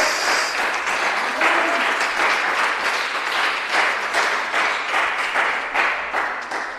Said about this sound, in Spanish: ¿Cuánto le dan palmas a Cristo esta mañana?